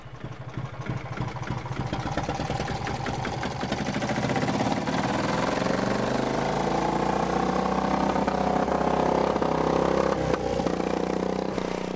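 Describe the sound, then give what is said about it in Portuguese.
An old tractor from a collection of old farm machines, started during an interview to show it still runs. Its engine chugs steadily, the low rhythmic knocking building into a louder, fuller running rumble with mechanical clatter, no voices present. “O trator com que António Fortunato fez questão de provar durante a entrevista que, apesar de nem sempre ser fácil os motores”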